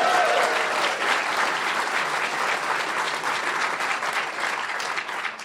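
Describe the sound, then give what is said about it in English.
A large live audience applauds steadily in the Nesholm Family Lecture Hall at Little McCaw Hall in downtown Seattle, a dense wash of clapping that stays loud and even throughout before easing slightly at the very end. “That's our crew, our live audience joining you tonight”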